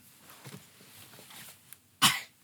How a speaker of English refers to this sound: Oh, she stepped away to cough. She's a pro. What a pro!